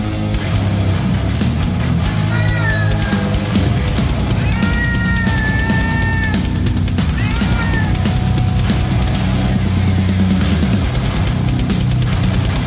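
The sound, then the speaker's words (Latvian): A loud, dense metal track with pounding drums and distorted guitars, while drawn-out cat meows serve as the lead vocal, rising and falling over the heavy music throughout. “Kaķa metāls, beidzot.”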